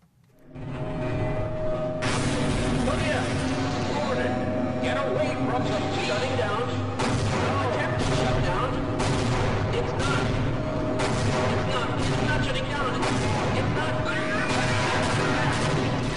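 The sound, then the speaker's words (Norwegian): Dense bursts of gunfire and heavy explosions from the 1998 video game Half-Life rattle on for the whole stretch, loud, with repeated sharp shots layered over rumbling booms and crashes in a chaotic firefight. “Dette er lyden av Half-Life, verdens beste dataspill.”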